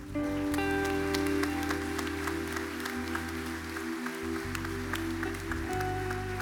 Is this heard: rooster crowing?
no